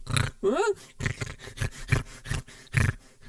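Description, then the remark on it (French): A voice imitating a small, fat pig: a rapid series of about eight loud snorting grunts and oinks, with a short rising-and-falling squeal near the start. “Eh ben maintenant, allez moi m'interroger un cochonnet, bon, un petit cochon, gros, un truc comme ça.”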